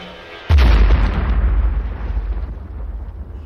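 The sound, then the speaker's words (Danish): A single massive explosion of an anti-ship missile warhead with 165 kg of explosives, detonating after clipping a treetop by a summer house area at Lumsås, Zealand, Denmark, bursts in suddenly, its deep low-frequency boom swelling and then rumbling on for several seconds as it slowly fades, with no voices present. “Det er altså en relativt stor eksplosion.”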